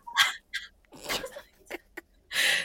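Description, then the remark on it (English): A man, the speaker's father, sneezes in the background: a short series of sharp, hissy bursts with small gasps between them, heard faintly and without anyone talking. “Um, wait, were you able to hear my dad sneezing in the background?”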